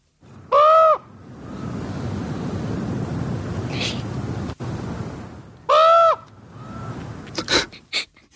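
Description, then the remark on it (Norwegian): A raven gives two loud, hoarse calls several seconds apart, standing out against a steady outdoor background hiss, followed by a few sharp clicking knocks near the end. “Svaret var ravn.”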